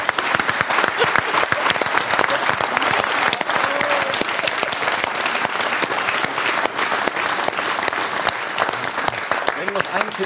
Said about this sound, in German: Nimm deinen Applaus, das hast du sehr, sehr gut gemacht.